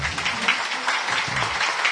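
Steady applause from a small group fills the full two seconds, a dense crackle of overlapping hand claps at an even, moderate loudness with no voices over it. The applause thanks a part-time reporter for their reporting work.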